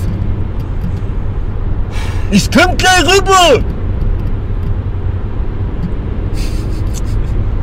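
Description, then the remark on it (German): A steady low engine rumble of a car being driven on the road runs throughout, with a man briefly shouting a short phrase over it partway through. “Auto fahren und gleichzeitig podcasten.”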